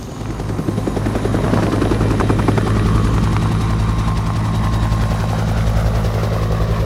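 A helicopter hovers, rocking in the wind after landing on the mountain top Storeballak while three people have 30 seconds to get their equipment out; its rotors thud in a fast steady rhythm over a loud, continuous engine roar with a strong low hum.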